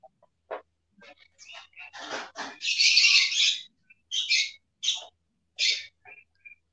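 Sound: pet birds chirping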